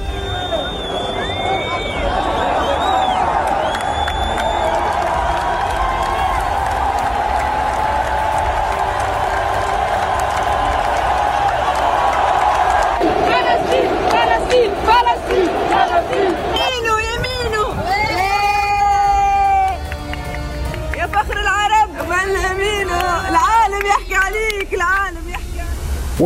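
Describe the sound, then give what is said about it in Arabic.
A huge football stadium crowd of Moroccan fans roars and cheers continuously at the end of the Morocco versus Canada match, and partway through, massed voices swell into loud, rhythmic chanting over the steady din. “في نهاية مباراة المغرب ضد كندا التي تأهلت للدور الثاني فيها هتفت الجماهير المغربية اذا فلسطين روح الشعوب وفرحه انتصارهم وقضيتهم”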